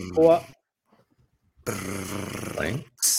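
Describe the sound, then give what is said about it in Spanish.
A voice imitates a drum roll as a sound effect before position number 4 of a top list is announced, a rough, rolling trill lasting over a second, fairly loud and steady. A short vocal burst comes before it, then a pause. “Redoble.”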